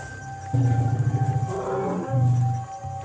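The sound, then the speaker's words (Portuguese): Deep, throaty rumbling from a herd of elephants gathered together for protection and surrounding the listeners: two loud pulsing bursts separated by a brief lull, with a steady low background hum and no voices. “A gente está praticamente cercado porque tem elefantes nos outros lados.”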